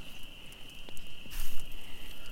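Bugs buzz outdoors at night beside a campfire in the Boundary Waters, a steady, unbroken high-pitched drone that carries through the whole moment, with a few soft crackles and rustles and no one talking.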